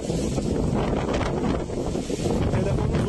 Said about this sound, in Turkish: Lodos şiddetini arttırdı. Akşam saatlerinde bir kafede çekilen görüntülerde giderek güçlenen fırtına vatandaşları korkuttu.